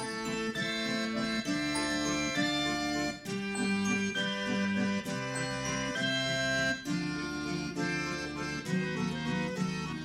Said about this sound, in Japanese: とまあこのようにものすごく繰り返しがあの強調されているメロディーで、まあ、今もまた「タタラ」ってずっと鳴ってるんですが